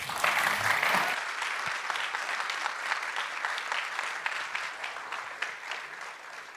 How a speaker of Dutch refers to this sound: maar ik jullie voor nu bedanken voor deze eerste helft? Zeker. Maak een applaus voor Schik.